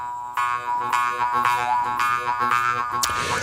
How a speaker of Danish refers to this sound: forleden hørte jeg en forklaring på det danske ord jødeharpe, altså det instrument, hvor man med en lignende genstand placeret i en metalbøjle frembringer lyde og toner med mundhulen.